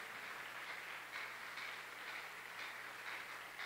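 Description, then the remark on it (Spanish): A crowd applauds the Lord for a healing miracle, a dense wash of many hands clapping steadily at an even, sustained level throughout with no voices standing out. “Vamos a darle un aplauso al Señor por el milagro que él hizo.”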